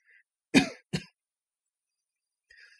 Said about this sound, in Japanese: ちょっと咳込みます。